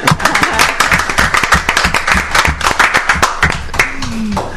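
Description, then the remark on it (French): An audience at a CPAM radio broadcast applauds the women who spoke, many hands clapping in a dense, continuous patter that stays loud throughout, with a faint voice briefly audible underneath near the end. “eh, elles, sont capables, on les applaudit.”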